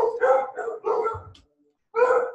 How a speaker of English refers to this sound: well, here's the dogs barking